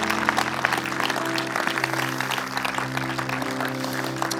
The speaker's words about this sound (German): Komm, lass uns den Leuten mal einen Applaus geben.